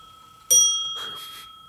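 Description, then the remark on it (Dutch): A clock sounds once with a bright, metallic chime that rings out and slowly fades, clear, with no talking over it. “Ik dacht zo straks al, moeten de klok even stilzetten.”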